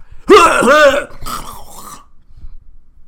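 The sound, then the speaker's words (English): A voice imitates an exaggerated, theatrical dad cough and throat clearing: one loud, gravelly hack followed by a rougher, rasping clear, then fading into quiet. “And he's coughing. You know that dad cough.”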